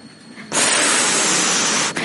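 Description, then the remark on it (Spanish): An air conditioner lets out a loud, steady hiss that starts abruptly after a quieter moment, holds for about a second and a half, then cuts off. No one speaks. “Quitar el aire, que el aire debe estar a punto de estallar.”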